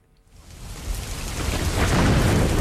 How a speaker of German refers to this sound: Monsun. Das heißt Gewitter, Sturmwind und vor allem Regen. Und zwar Rekordwert von über 1'500 Liter pro Quadratmeter in einem einzigen Tag.